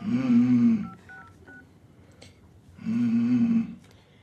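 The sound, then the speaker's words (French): A few quick keypad dialing beeps sound in succession as someone dials a phone call, framed by two longer, low buzzing telephone tones. The tones are clear, with no talking. “Attendez, je vais appeler.”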